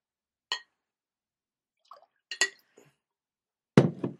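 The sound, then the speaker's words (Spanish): Sharp glassy clinks ring out a few times with short gaps as drinking water is poured into a glass, ending in a louder clatter of glass and a brief wet trickle, with no one speaking. “pueden ir a tomarse un vaso de agua o etcétera. De hecho, nosotros haremos lo mismo. Glu, glu, glu.”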